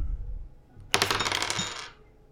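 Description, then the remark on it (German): A single die is rolled, clattering and rattling across a tabletop for about a second, a dense burst of bright clicks that quickly settles into silence, landing on a one. “würfelt mit einem Würfel”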